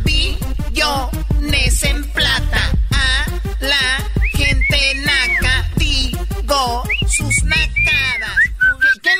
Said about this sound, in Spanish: Ah, el bien clarito que te mentó la madre con chiflido.